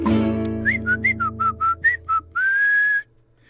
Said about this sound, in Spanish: Otras veces solo hay gritos y chiflitos.